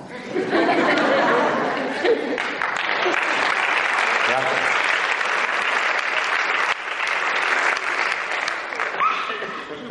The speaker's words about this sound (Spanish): Y ahora observen, ¿a quién aplauden?